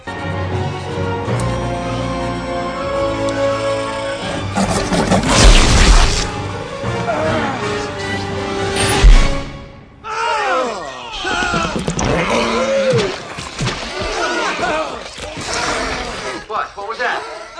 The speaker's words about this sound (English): I heard some squealing or something. Oh, no, everything's fine. But the animal is inside out. I heard that. It turned inside out? and it exploded. Did I just hear that that animal turned inside out and then it exploded?